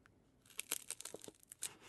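Crunchy bites and crackling chews into a corn cake topped with pale ham, a quick burst of brittle snaps and crinkles over about two seconds, with no talking.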